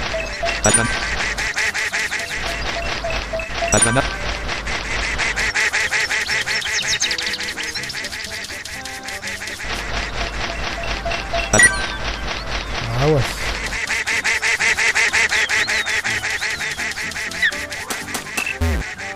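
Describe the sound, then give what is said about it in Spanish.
Repeated cartoonish quacks from a walking duck in a video game bonus mini-game, loud, sounding in quick succession over a dense, busy backdrop of electronic game sounds for the whole stretch. “El pato ya ha terminado su caminata.”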